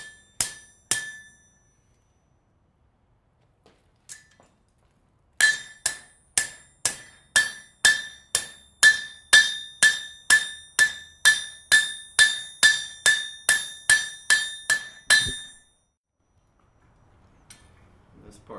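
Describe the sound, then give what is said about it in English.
Sharp metallic hammer strikes on a metal bracket being built for a motorcycle sissy bar: a couple of blows, a pause, then a steady run of about twenty evenly spaced ringing clanks before it stops, followed by faint rustling. “Oh, this is a bracket. Okay. Uh, that I'm building for the sissy bar for my motorcycle.”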